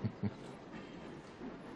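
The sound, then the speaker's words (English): A moving train rattles along the rails in a steady low rumble, with two quick thuds from the wheels near the start and another soft knock later. No one speaks. “other than the train movement, the box is not moving on its own.”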